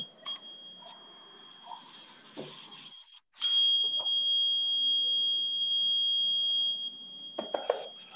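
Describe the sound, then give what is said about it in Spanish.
A tuning fork rings with a single high, pure tone that swells louder partway through and holds steadily for several seconds, with faint rustles and clicks around it. “Aquí tengo un diapasón que seguramente se va a escuchar ahorita en el micrófono, que vibra, entonces limpia la energía.”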